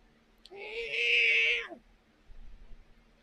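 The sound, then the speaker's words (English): A single drawn-out cat vocalization, loud, holding a steady tone for over a second before dropping off, followed by faint low rustling; the cat is hostile toward another cat. “Really hates that other cat. Not having it.”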